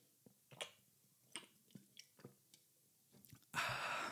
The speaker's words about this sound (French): Écoutez, je bois un coup.